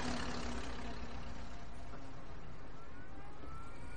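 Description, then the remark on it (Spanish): Steady rumble of street traffic, cars and buses passing outside a window, with engines droning and hissing continuously at a moderate level, no distinct pauses or voices. “Tras ella circulan coches y autobuses.”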